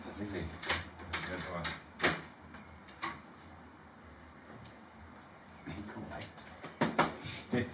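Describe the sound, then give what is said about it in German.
Sharp knocks on a door in two uneven bursts, about five raps, a pause, then another quick cluster of raps, crisp over a low background murmur. “ich habe gerade gra, gedacht, warte mal, da klopft gerade an der Tür.”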